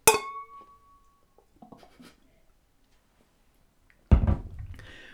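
Two glasses clink together once in a toast with a bright, ringing tone that fades over about a second, followed by faint handling sounds and a duller knock near the end.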